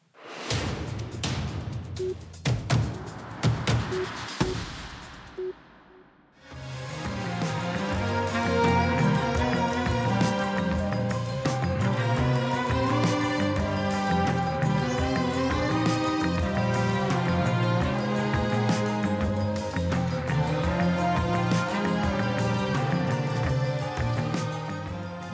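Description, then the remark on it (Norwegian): Jazz band music, among the best the 2015 jazz year had to offer, plays at a steady, full level after a brief opening of noisy, swishing sound and a short dip, with layered sustained instruments over a low bass line and no voices. “Dette er lyden av noe av det beste jazzåret 2015 har hatt å by på.”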